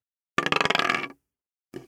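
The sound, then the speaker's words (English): A twenty-sided die, rolled for a skill check in a tabletop role-playing game and landing on 12, clatters across a hard table in a quick burst of rapid clicks that slows and settles, followed by one last short tap a moment later. “And you're going to have to do some, like, here, for, take this dice. 20 sided dice. Roll it, roll it, see what you get.”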